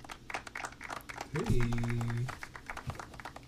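A steady round of applause: dense, crackling clapping that runs the whole time, with a brief low, droning tone swelling up in the middle and then dropping away.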